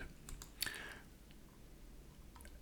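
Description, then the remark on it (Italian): A crisp computer mouse click stands out, with a few fainter ticks before and after it, as a suggested related search term is clicked on a Google results page. Brief, with no talking. “Quindi possiamo cliccare su questa parola senza dover andare a fare, eh, a scrivere, digitare nella casella questa parola e vediamo che eh, chiaramente la SERP cambia completamente.”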